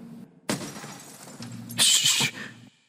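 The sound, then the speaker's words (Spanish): Two windows of an upstairs room shatter in a loud crash, with a sharp burst of breaking and a bright, tinkling spray of shards a second later, covering the floor with broken glass, over a low steady hum, and no voices. “Dos ventanas de una habitación estaban destrozadas y el suelo cubierto de cristales rotos.”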